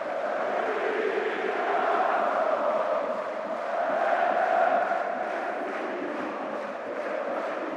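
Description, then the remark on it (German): A huge stadium crowd of about 55,000 roars and cheers continuously, celebrating Hamburger SV just after the final whistle of a match against VfB Stuttgart, a dense sustained wall of voices that swells and ebbs slightly, with chanting undertones rising through the noise. “Der Hamburger Sportverein wird gefeiert von 55.000 abzüglich der, der hier für den VfB Stuttgart äh, gewesen sind.”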